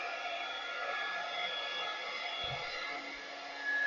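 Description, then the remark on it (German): A hair dryer blows steadily throughout while someone's hair is dried, a loud, continuous airy whoosh with a faint whine, briefly interrupted by a low thump and swelling slightly louder at the end. “Wie lange föhnst du dir immer die Haare?”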